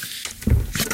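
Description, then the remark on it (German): A single sneeze bursts out, short and forceful, with a brief breathy lead-in and no talking around it. “Gesundheit.”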